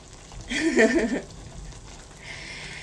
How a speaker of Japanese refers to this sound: コトコトコトコト煮込んでおります。